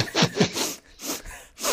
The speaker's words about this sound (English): People in the room next door are like, "Why does this guy keep sniffing?"